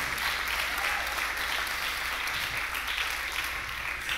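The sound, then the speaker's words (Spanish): A crowd at a night-time church gathering claps steadily for several seconds in praise of God, a dense, continuous wash of many hands with no voices standing out and no clear pauses. “Alguien puede levantar un aplauso de alabanza a un Dios grande en esta noche.”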